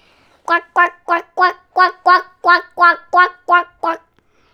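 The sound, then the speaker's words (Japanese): A duck quacks eleven times in a quick, steady rhythm, each quack short, loud and nasal, with no other sounds around it. “おお、今度はアヒルあはあはあ。”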